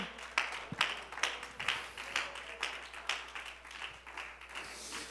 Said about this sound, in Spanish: Y si ese aplauso es para el Señor, creo que se lo merece con todo su corazón.